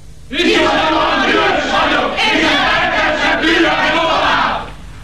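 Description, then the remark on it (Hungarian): A large audience erupts in loud, sustained cheering and shouting, a dense roar of many voices that holds steady for several seconds before tapering off. “Hölgyeim és uraim, hadd halljam, hogy vannak?”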